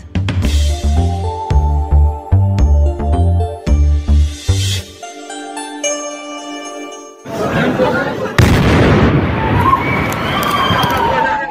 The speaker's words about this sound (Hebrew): ביום ראשון אחר הצהריים נשמע פיצוץ עז בשדרות הסתכלל שבאיסטנבול בירת טורקיה. מטען רב עוצמה הביא להרג ופציעת אזרחים שבאו לקניות ובילוי, ברחוב ההומה והמוכר על ידי כל תייר בטורקיה.